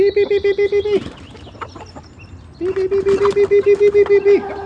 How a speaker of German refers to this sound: Die Hühner kamen heraus. Zuletzt der Hahn.